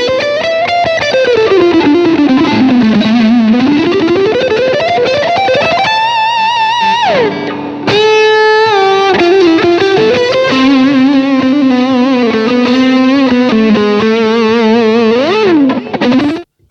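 Electric guitar played through a Dodd drive placed before an overdrive pedal, a gritty, sustained tone with sliding, wavering melodic lines and bends, loud and continuous with no talking.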